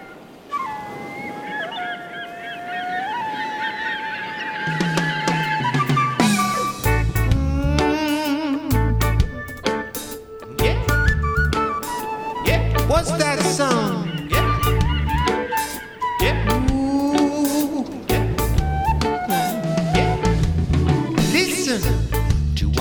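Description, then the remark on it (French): A reggae cover of a song that was originally a hippie song: a brief sustained melodic intro gives way to a steady, loud bass-heavy beat with a sung vocal melody riding over the top. “ils l'ont refaite en version reggae.”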